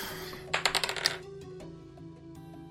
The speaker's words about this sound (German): Alles klar, dann äh, würfel ich einmal für Beehive Betty.